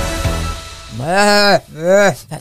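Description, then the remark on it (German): A person trying to imitate a young goat makes two wavering, nasal bleats that sound more like a sheep, the second shorter, followed by a brief breathy sound; fairly loud, with no other talking. “Nee, das war jetzt mehr ein Schaf. Äh, ich kann nur junge Ziegen, merke ich gerade.”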